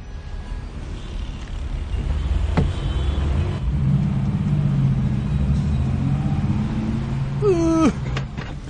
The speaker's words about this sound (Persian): ای بابا این ترافیک هم تیر اصلا دیگه داره ما رو دیوونه میکنه به خدا